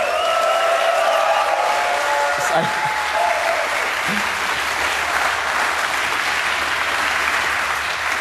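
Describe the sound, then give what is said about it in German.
Sustained audience applause at a live show at the Chaos Communication Camp, following an acoustic performance, a dense steady wash of clapping that holds loud and even for the whole stretch, with a few brief whistles or cheers rising near the start. “Genau, ein super Applaus hier für unser Cyber-Team.”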